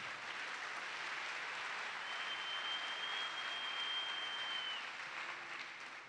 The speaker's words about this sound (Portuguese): Dá mais uma salva de palmas ao Senhor.